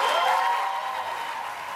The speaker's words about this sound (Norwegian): Ja, Oprah Winfrey fikk eh, mye applaus.